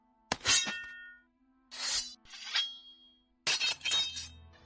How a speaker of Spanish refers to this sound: ¿Qué es eso? Suena como... Combate. Ah, cuerpo a cuerpo, espadas.